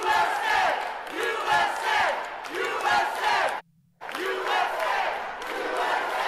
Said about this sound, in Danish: Alle klapper af ham? Eller hvad?